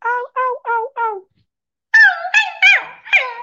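A female dog lets out four quick, whiny barks, falls silent briefly, then gives a louder run of drawn-out whimpering yelps that rise and fall in pitch, responding to sounds a person is making at it, with no talking.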